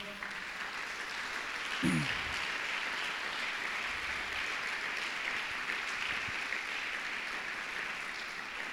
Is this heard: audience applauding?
yes